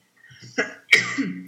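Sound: sneeze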